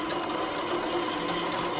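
A drill press with high-speed steel bits boring holes in steel gives a steady, continuous mechanical whine with a buzzing, harmonic-rich tone. The loudness stays constant throughout, and no one speaks.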